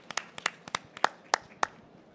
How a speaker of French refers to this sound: Quel courage, bravo. Moi, j'aurais pas osé. moi, je, dis, on applaudit.